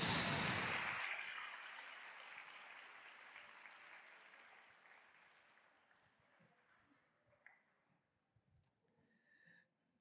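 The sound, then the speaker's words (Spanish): A standing audience bursts into loud, dense applause for God that starts abruptly, then gradually thins and fades over several seconds, leaving a few scattered claps and faint murmurs near the end. “Póngase de pie, por favor, apláudale fuerte a Dios.”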